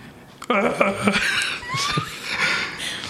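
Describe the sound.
A person makes gruff, growly bear-like noises, a few voiced bursts with breathy, chuckling edges, doing a voice for a toy teddy bear and imitating how bears or owlbears sound rather than speaking.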